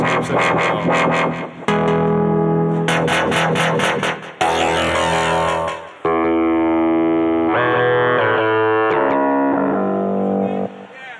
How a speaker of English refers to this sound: this is a uh, native instruments instrument called rounds